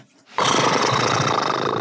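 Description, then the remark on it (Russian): A person mimics a horse's whinny: after a brief quiet moment, a loud, rough, strained vocal cry bursts out and holds steadily for over a second. “Да, лошади ржут и визжат, и фыркают, и все это что-то означает.”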